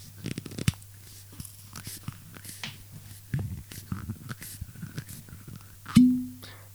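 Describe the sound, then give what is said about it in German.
A cork squeaks and crunches as it is twisted out of a bottle, whose label is decorated with vine tendrils and reads Bertha, for several seconds, then comes out with a single loud, hollow pop that rings briefly at a low pitch. “Ich mache jetzt mal diesen Korken auf, gucken, ob er ploppt.”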